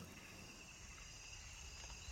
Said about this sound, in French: Un paysage sonore de 12 minutes, tiré de 6 heures d'enregistrement entre minuit et l'aube. C'est en février 1990. D'abord, il y a les chants des insectes et des grenouilles.